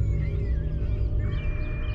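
Birds screaming with harsh, crow-like caws over a steady low rumble, the calls rising and falling in a continuous, overlapping chorus.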